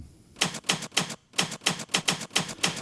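A short intro tune built from steady, rhythmic typewriter-like key clacks, about four sharp strikes per second with a brief pause early on, loud and without any voices.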